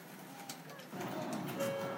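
A Sakura line streetcar rolls along its rails outdoors in Minami Otsuka, an older neighborhood of central Tokyo, a low rumble swelling about halfway through and a thin, steady metallic squeal rising near the end, with faint birdsound in the background.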